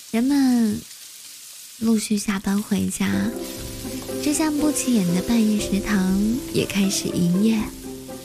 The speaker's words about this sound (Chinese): 这个是烹饪佳肴的声音。